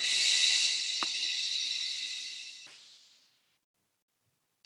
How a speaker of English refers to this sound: wherever you are, we'll just start the session with a nice deep inhalation in the nose and a nice deep exhalation through the mouth.